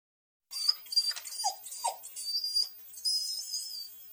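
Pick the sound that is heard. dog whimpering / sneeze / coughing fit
dog whimpering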